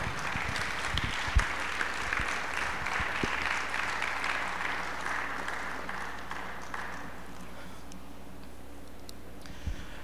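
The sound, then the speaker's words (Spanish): A church audience applauds the Lord, clapping together in a steady, dense wash of applause that holds strong for several seconds, then gradually thins and fades toward the end, with no talking over it. “Aplaude al Señor, por favor.”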